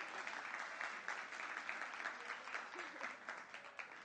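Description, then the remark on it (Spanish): An audience applauds three young volunteers called onto a stage, a dense wash of many hands clapping together at an even level for several seconds, sustained without a break. “Un aplauso para los tres.”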